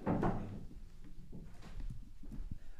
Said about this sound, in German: Ähm, du legst jetzt dein Mikro ab einfach auf den Tisch, egal was du für Geräusche machst.